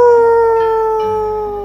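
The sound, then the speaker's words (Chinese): A long, loud crowing call from a rooster, held as one strained harmonic note that steps and sags slightly downward in pitch over nearly two seconds, with no talking. “公鸡一叫，大家都起来了。”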